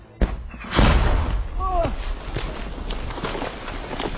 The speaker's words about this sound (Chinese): 俄军一枚炮弹直接打进壕沟，这在乌克兰第三突击旅官兵面前爆炸，只是溅起的沙土和冲击力把蹲在最前面的队员震倒，并没有造成伤亡。